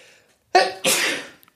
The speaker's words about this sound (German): Gesundheit. Gesundheit, mein Schatz.